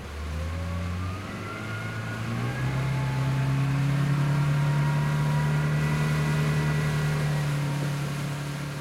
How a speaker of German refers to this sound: damit er ein bisschen mehr Gas geben kann und wir in Kasane ankommen können.